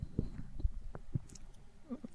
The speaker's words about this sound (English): Yes. I was taking a sip of water there.